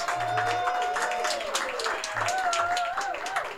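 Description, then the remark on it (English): Steady audience applause at a live recording at the Waypost on North Williams, a dense wash of many hands clapping at an even loudness, with a few whoops and tonal voices rising and falling through it. “Uh, yeah, we can have applause. We have an audience here, which is.”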